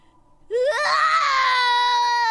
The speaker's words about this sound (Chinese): 可是才没过多久，他的耳朵里又响起了那听惯了的哭声，而且这一次比之前的哭声更大了。